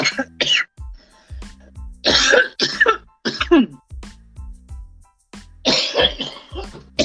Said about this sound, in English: All right. I think this is my first coughing fit on live.